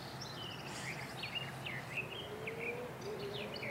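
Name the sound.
birds chirping at dawn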